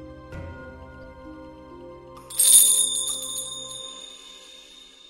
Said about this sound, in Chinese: 一阵风吹过，银铃叮当，空灵的铃声如来世般飘渺，不可追寻。